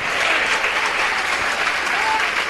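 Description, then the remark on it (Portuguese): Sustained applause from a crowd, a dense, steady wash of clapping that holds at an even, fairly loud level throughout with no pauses. “Se você está alegre, alegre, alegre, dá uma salva de palmas com alegria, aplaude com teu coração, sorria com teu coração.”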